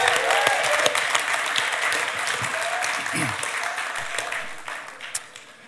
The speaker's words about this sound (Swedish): Ge honom en applåd.